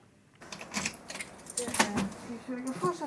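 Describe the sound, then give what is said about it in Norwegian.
The keys to a small library branch in Gaular jangle in several bright metallic bursts, mixed with a person talking. “nøklene til biblioteket her.”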